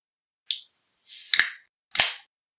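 A can of Austrian premium Märzen beer is cracked open: a sharp metallic snap releases a hissing fizz, followed by another click and a short second burst of hiss. No one speaks.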